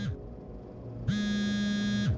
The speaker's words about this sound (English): My phone rang.